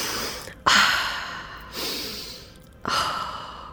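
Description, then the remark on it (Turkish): A person imitates a yoga stretching exhale with three breathy, airy exhalations, each starting with a sharp onset and fading, moderately loud, with no speech. “O zaman onun yoga sesi belki bir esneme Çok sesi zor bir hareket. Böyle ah, bir, olabilir belki. Evet böyle nefes verip frekansı.”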